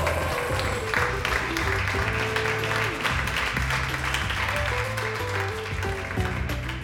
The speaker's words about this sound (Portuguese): E agora, na pista, apresentando uma dança sensual, o vosso aplauso para Cristal.